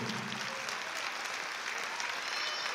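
An audience breaks into steady applause for the young people, a dense wash of many hands clapping at an even level throughout, with faint voices mixed into the crowd noise.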